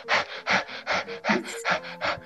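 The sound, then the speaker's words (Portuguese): A person demonstrates rapid, anxious panting: about six quick, breathy huffs in a steady rhythm, fairly loud, with no talking in between. “respirando assim rápido.”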